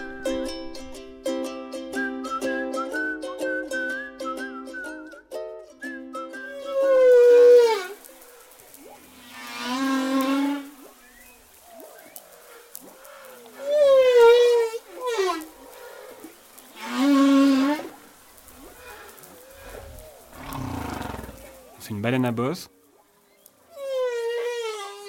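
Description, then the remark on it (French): A male whale sings alone in the Sainte-Marie channel, Madagascar, in long, rising and falling moans and wails, with harmonic tones and pulsed, buzzing calls repeating in slow phrases over about twenty-five seconds. “sur le chant de la baleine”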